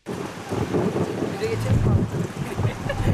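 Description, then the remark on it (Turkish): Strong gusty lodos (southwesterly) windstorm buffets the microphone with a loud, continuous roar and low rumbling surges, with water and boat-like noise mixed in and faint voices underneath; a winter storm in Istanbul, Turkey, that brought rain, toppled trees and tore off roofs. “Önüne kattığını götüren kuvvetli lodos peşi sıra yağmur getirdi.”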